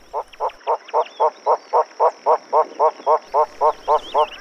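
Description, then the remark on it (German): Von der Decken's hornbill, an East African species, giving a long, steady run of about seventeen clucking, chuckling notes at an even rhythm, clear, with a thin steady insect-like whine in the background. “Da gibt es einen ostafrikanischen Toko, der von Decken Toko heißt und den es hier im Zoo gibt.”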